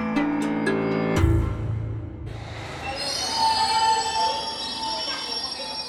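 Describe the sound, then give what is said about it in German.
A London Underground train rumbles loudly through Embankment station near the Thames in summer 2023, a low roar giving way to sustained high metallic squealing of wheels on the rails, with some faint chatter beneath. “London im Sommer 2023. U-Bahn-Station Embankment, nicht weit von der Themse.”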